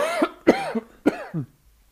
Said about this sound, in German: Hust raus, das Ding.